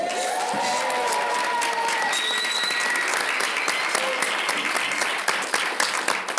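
Sustained audience applause fills the whole stretch, dense and steady clapping from a crowd with a few scattered whoops and cheers rising above it, as a performer artist is introduced.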